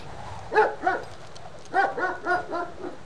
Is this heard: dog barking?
yes